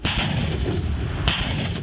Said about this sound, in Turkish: Fırat Kalkanı, Zeytin Dalı ve Barış Pınarı bölgelerindeki PKK-YPG'li teröristler gece boyu obüs ve çok damlılı roket atarlarla ateş altına alındı.